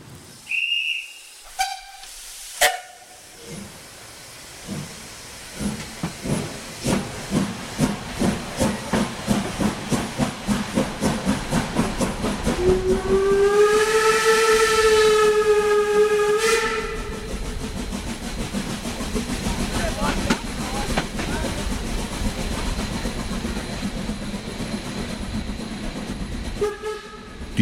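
A steam locomotive chuffs in a steady, quickening rhythm, then lets out a loud, sustained whistle over a background of hissing steam before settling into a continuous rumble.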